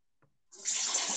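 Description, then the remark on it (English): A steady stream of liquid, like someone urinating, starts after a faint bump and continues as a bright, hissing splash with no talking. “Are you taking a piss? Why you can hear it?”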